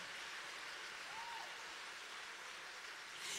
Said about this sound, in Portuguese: Se você está aqui essa noite, você merece aplauso. Você merece aplausos. Eu vou repetir. Você merece aplausos.